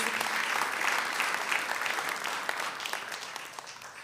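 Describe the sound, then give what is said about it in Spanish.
A church audience applauds the Lord steadily for about four seconds, a dense wash of many hands clapping at once that stays fairly loud before easing off slightly toward the end, with no one speaking. “Men, si eso no vale la pena aplaudir al Señor, no sé qué.”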